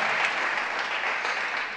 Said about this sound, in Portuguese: Dá um aplauso a Jesus.